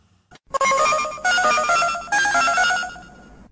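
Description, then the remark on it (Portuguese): A collect call telephone signal tone: three loud electronic bursts of stepped, rising beeping notes, clear with no voices around them; a collect call placed to a home from Fortaleza. “Ele ligava a cobrar aqui para casa para avisar que chegou e meu avô, meu avô, meu avô era uma figura.”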